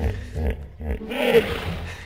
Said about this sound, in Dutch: Ja, dit lijkt ergens op Maxima in Lucky TV, toch? Maar goed, het is een, een, een nijlpaard.